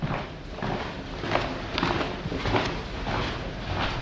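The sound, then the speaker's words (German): Steady footsteps crunch along at an even walking pace, roughly one step every half second, against a dense, rumbling background noise; no clear voices stand out. “Deshalb war es besser, sich zu verstecken, als Eberhard Hösch Schritte und Stimmen hörte.”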